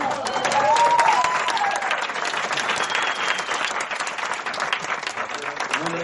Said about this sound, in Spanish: Ahí va, muy bien. Un aplauso.